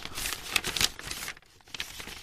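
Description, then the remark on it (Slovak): Dry rustling and crinkling of a pile of old papers in a cellar corner as something moves underneath, irregular bursts of crackling that pause briefly and then resume, with no voices. “Pod kopou starých papierov sa naozaj niečo hýbalo.”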